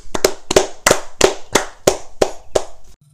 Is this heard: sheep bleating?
no